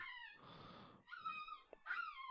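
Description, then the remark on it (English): A female dog whimpers in high, drawn-out whines broken by short breathy gasps, then lets out a sharp yip before whining again, fairly loud with no one talking. “Why is my dog doing this?”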